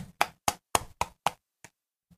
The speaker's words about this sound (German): Warte, ich tippe mal kurz mein Handy.